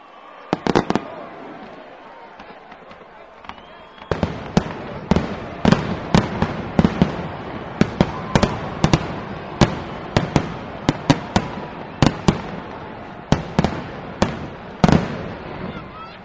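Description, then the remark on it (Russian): Fireworks burst in a rapid, irregular volley of sharp, loud cracks and pops, with a dense rumbling background of further bangs and a faint murmur of people. “Это звуки фейерверков специально для вас.”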